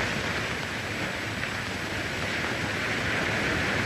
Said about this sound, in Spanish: van ustedes a escuchar allí el fondo, el sonido del mar, porque es la selección de una película grabada por el propio, por el propio ….